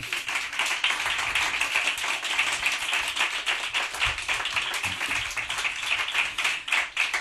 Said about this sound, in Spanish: Por eso recibimos a Radio Gaga. Por eso este aplauso es para Quique Peinado y Manuel Burque.